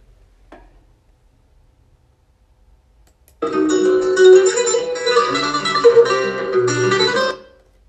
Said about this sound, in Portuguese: Esse é o violão.